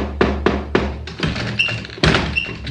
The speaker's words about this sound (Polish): I tu nagle rozległo się pukanie.